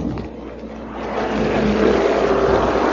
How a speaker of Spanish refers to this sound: Eh, pasan camiones a esta hora de la noche, de la madrugada.